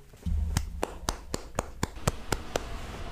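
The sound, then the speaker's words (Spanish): Eight sharp, evenly spaced hand claps ring out in a steady rhythm, fairly loud, with a low hum underneath and no talking. “Mm, un perro, un gato y unos aplausos, sí, sí, sí.”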